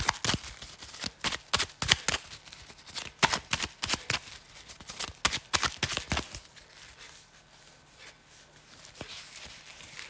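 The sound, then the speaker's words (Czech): Tarot cards being shuffled for a partner reading, a rapid run of crisp riffling flutters for several seconds, then a few sparse, quieter card taps and slides with no voices. “já už se dívám na vaši fotku, míchám u toho karty a my se spolu podíváme, co nám Tarot poví o vás dvou.”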